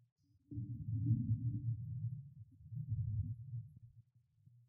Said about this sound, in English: Coming out of this story, we, we've had some more thunder outside. Just take a listen.